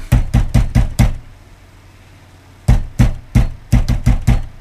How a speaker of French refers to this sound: Qui c'est le bourrin qui défonce la porte Allez voir, s'il vous plaît.